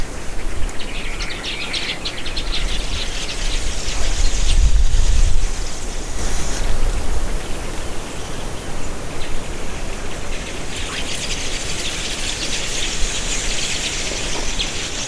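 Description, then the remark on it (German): A flock of about 300 Golandweber weaver birds chatters steadily, a dense, buzzy twittering of many high voices that swells and fades over a constant rushing, wind-like background noise, with no one speaking. “klingt nicht spektakulär, aber das sind diese Webervögelchen, von denen ich gerade redete, Golandweber.”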